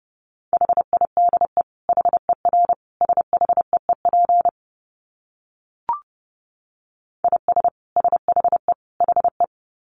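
Fast Morse code at around 30 words per minute: a steady mid-pitched tone keyed in quick dots and dashes, sent in bursts, with a pause broken by a single click.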